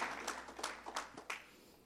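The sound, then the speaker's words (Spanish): A church audience claps for the word of God in a quick, uneven patter of overlapping hand claps, fairly soft, with no voices over it. “Denle un fuerte aplauso a la palabra de Dios.”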